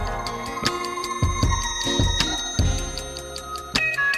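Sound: clock ticking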